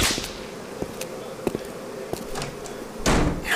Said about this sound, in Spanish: Uy, pero jefe, afuera hay muchos zancudos.